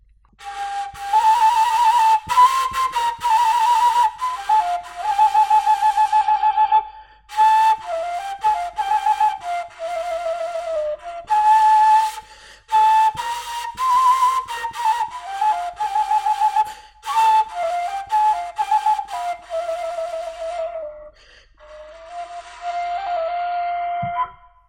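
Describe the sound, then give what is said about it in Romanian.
A tilinca, a ductless folk flute with no plug and a very primitive sound, plays a breathy, wavering melody alone, fairly loud, in phrases broken by short pauses for breath, with pitch sliding between notes. “E un instrument destul de dificil, uh, pentru că nu are dop și are un sunet foarte primitiv.”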